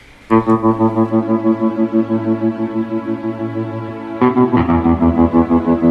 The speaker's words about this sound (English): And this song always meant a lot to me because of those sort of times.